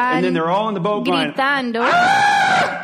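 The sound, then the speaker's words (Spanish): A voice mimics the terrified screaming of people crying out in fear at what they take for a ghost, rising and wavering in pitch through a few quick wails before ending in one long, loud, sustained shriek, unaccompanied. “Están gritando así.”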